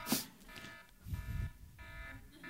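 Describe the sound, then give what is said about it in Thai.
A real alarm clock, set to go off at six in the morning, rings with a harsh, buzzy electronic tone that holds steady in stretches broken by brief pauses, over a low rumble midway. No one speaks. “โอ้มันไม่หยุดเนี่ย เอาหยุดได้แล้ว โอเค อันนี้เป็นนาฬิกาปลุกผมผมจริงๆนะครับ และเสียงนี้จริง ๆ เพราะว่าผมต้องไปโรงพยาบาลถึงโรงพยาบาลเจ็ดโมงเช้าเพื่อไปผ่าตัด ดังนั้นพอหกโมงเช้าเนี่ยเสียงมันจะมาแล้วอ้าวไม่ยอมหยุดอีกละ”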